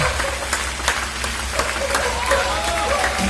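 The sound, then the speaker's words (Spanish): A crowd applauding steadily while everyone sings along, a dense wash of many overlapping claps with sharper individual hits standing out, with some faint voices mixed in throughout. “Todos cantando. Aplaudiendo.”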